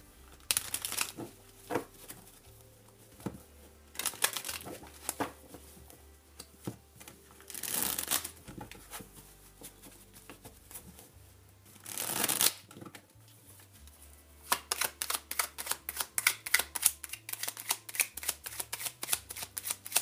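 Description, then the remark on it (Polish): Tarot cards being shuffled during a tarot reading, with bursts of crisp riffling and soft flicks, then a fast run of sharp, evenly spaced card snaps toward the end. No voices. “Teraz karta Terota.”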